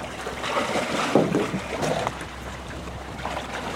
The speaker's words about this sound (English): jumps out into the cold water and drags the seaplane onto the rocky shore by a rope.